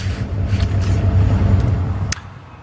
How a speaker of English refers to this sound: Okay, so out here at the truck stop, it'll probably start getting pretty busy soon as the truckers head out for the night.